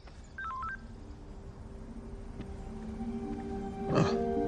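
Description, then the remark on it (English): A mobile phone rings with a brief run of stepped electronic tones near the start, then gives way to a steady low hum and a sudden rough burst of noise near the end. “Shane has her ringer on like a dummy”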